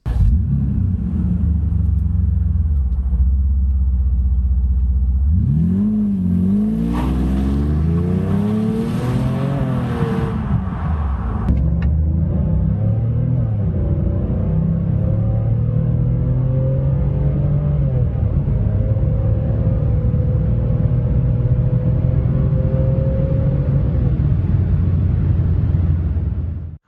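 The 7-litre V12 engine of a rare Mercedes W140 AMG version with an AMG exhaust and 496 PS rumbles loudly, revving up through several climbing sweeps, then settling into a deep, steady drone as it drives on. No one speaks.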